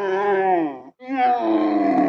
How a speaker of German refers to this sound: Ja, das ist das Kamel. Das ist das Kamel. Ja. Ah, das klingt wie ein das klingt wie der der Wookie von Star Wars. Ja, Stimmt. Ja, das ist Kamel äh, Bogenschütze oder Kamel Reiter.